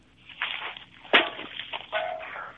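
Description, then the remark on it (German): A beer can lying on the ground by signs keeping an exit clear is kicked along: a sharp metallic clank in the middle, surrounded by scraping and rattling as it skids and tumbles across the pavement. “Kannst du mal ganz kurz gegen die Bierdose treten?”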